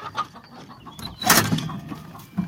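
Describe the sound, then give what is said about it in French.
Hens cluck and murmur in a busy, overlapping chatter, with a brief louder burst of fluttering or scraping midway, without any talking. Grain has been put down and the coop hatch is being opened as the hens get ready to come out. “Oh là, elles m'ont entendu. Les poules vont sortir et puis voilà.”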